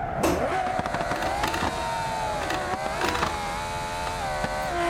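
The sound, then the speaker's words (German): A video game car engine drones steadily throughout, its pitch wavering as it skids and slides, with scraping, mechanical noises layered over a constant loud rumble. “Dieses Auto ist nicht steuerbar.”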